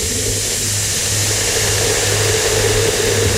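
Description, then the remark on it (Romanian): A car engine rumbles loudly while sitting in traffic, holding a steady, gritty drone with a low pulsing throb repeating throughout, revving gently. No one speaks. “Deci ăștia stau în trafic acum”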